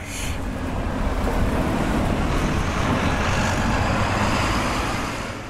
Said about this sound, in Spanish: Oye, pero están pasando autobuses llenos. Sí, porque esto conecta con la terminal de cruceros. Si no, está todo cerrado, pero cuando hay un crucero sí que tiene más, más tráfico.